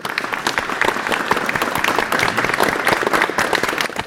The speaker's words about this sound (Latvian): Pēc Makbeta pirmizrādes Dāngāpos teātrī skatītāju stāv aplausi